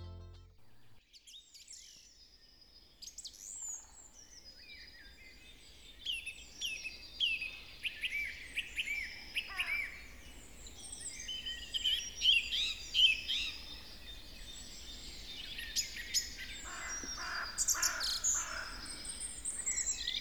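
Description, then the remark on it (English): A song thrush sings in a woodland dawn chorus, recorded early in the morning in a wood, bright repeated phrases ringing out over other birds and a low steady background hum, with no voices. “The song thrush is doing his best.”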